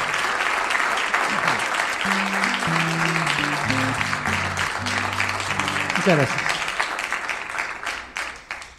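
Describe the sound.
A concert audience at the CPC de Argüello in Córdoba on 26 September 2008 applauds after a song, in a dense, steady wash of clapping that fades toward the end, while a man briefly speaks and a low melodic instrumental line plays underneath.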